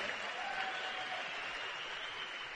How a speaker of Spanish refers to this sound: El aplauso no es para mí, es para ustedes y para el de al lado. Métanle un codazo.